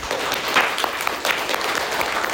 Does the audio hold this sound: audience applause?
yes